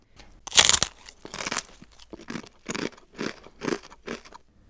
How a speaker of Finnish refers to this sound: Kun syön näkkileipää ja pureskelen sitä suussa, kova leipä alkaa hajota tahnamaiseksi massaksi, jonka sitten nielen.